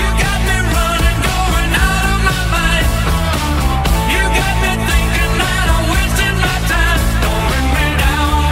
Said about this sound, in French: C'est le son d'une bande de musiciens accomplis qui déroule un titre qui accroche les tympans.